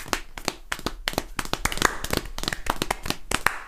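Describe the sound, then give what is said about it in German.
Rapid hand tapping imitating a galloping horse: a steady run of sharp, crisp slaps in quick uneven groups, continuing for several seconds with no voices. “Kurz ein Pferd nachmachen.”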